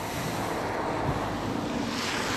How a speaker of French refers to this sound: Euh, désolé pour les voitures,